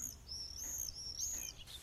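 common swift calls

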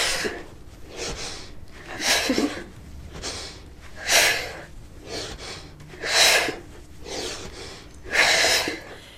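heavy breathing

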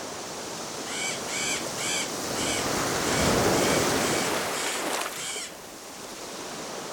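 waves on a beach

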